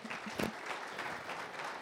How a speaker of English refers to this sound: Well, thank you so much for sharing. Let's give him a round of applause here for